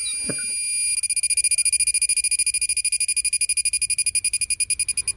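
A loud tropical cicada song: a piercing, high-pitched buzz pulsing rapidly and steadily, continuous for several seconds after a brief soft thump at the start, with no voices.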